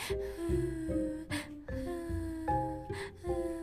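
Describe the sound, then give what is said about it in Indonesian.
A voice imitates an eerie crying sound heard at a house, drawn-out wavering wails broken by three sharp, breathy gasps. It sounds steady, with no other talking. “tapi ada suaranya gitu kan terus nggak lama ada suara nangis dong dan nangis itu kayak”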